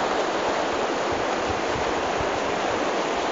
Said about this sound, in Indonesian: Ini air mengalir.